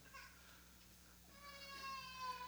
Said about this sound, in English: We love the sound of a little baby crying. That's the sound of life.